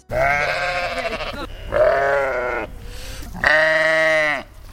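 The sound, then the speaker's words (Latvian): Three loud Latvian darkhead sheep bleats in succession, each a wavering, nasal baa lasting about a second, with short pauses between and no talking, on a farm in Vecumnieki municipality, Latvia, that keeps 177 sheep. “Tās aitas jums tādas komunikāblas vai ne? Pieradušas pie pie apmeklētājiem.”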